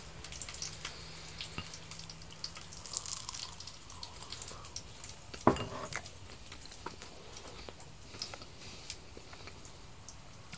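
Irregular light clinks and taps of utensils against a frying pan on a portable gas stove while pork belly is cooked at home, with one sharper, louder clank midway, over a soft steady background hiss and no talking.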